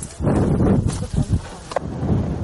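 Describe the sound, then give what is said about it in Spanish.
A loud explosion erupts from the ground beneath a girl holding a kitten at the centre of a square painted in a courtyard, with a deep, heavy rumble, breaking into a few booming bursts that churn and roll before easing into a lingering low roar. No voices. “La explosión surge del suelo bajo la niña.”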